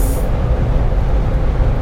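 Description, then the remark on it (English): A heavy truck rumbles, its engine a loud, steady low roar filling the whole moment with no voices over it. “This truck won't get over it.”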